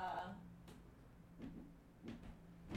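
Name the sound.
drawer opened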